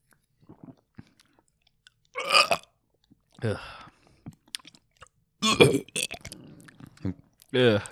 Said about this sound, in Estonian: sa võtad, võtad lonksu ära või? teeme, teeme lonksu. teeme koos. teeme koos.